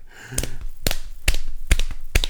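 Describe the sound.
Someone imitates a horse's hoofbeats with about five sharp clicks at a steady, evenly spaced clip-clop rhythm, with no talking.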